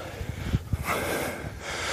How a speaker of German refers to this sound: So, ein bisschen ins Schnaufen sind wir gekommen, weil es ist zwar nicht viel auf dieses hintere Hörndl, das wir erklommen haben, aber steil in der, in der Herbstsonne.